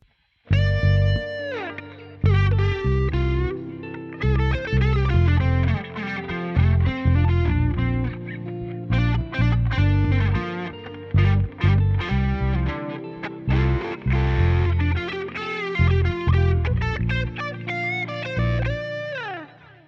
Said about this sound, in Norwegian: så her kommer en eh, hurtig smelt sammen eh, versjon av gitarsoloen der i spillen